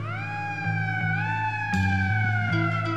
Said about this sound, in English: In the dark, I hear a siren.